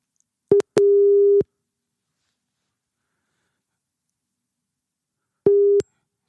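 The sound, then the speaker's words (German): A steady electronic telephone ringing tone during a call, heard as a short blip and a one-second beep, then a long silence before another brief beep. Clear, with no voices. “Dann ruf ihn doch an.”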